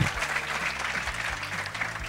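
An audience claps steadily, a dense wash of many hands applauding at moderate volume for a couple of seconds, with no one speaking over it; welcoming the founder of Chilefy, a graduate of the School of Administration and Business.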